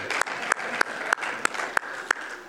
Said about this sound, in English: Um, and the best of all is that it's national or whatever, buy a donut day. All right, so I'll, I'll do that one. Yeah, we'll get some claps here.